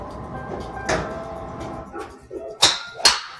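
Golf drivers striking balls at a driving range on a spring day: a few sharp, bright cracks, with two loud crisp smacks close together near the end, over low background rumble and no talk.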